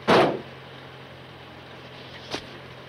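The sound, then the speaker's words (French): A person head-butts a car: a loud, dull thud against the car body with a short metallic ring, then after a pause a second, much lighter knock. No voices, just a low steady hum underneath. “s'est laissé emporter par sa colère jusqu'à donner des coups de boule à une voiture”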